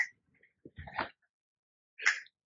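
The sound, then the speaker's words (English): A few short, sharp animal noises from cats causing trouble: a quick squeak, then a rougher scuffling cry, and after a pause one more high yelp, with silence between and no talking. “It's just the cats getting in the it's way. It's just a cat problem.”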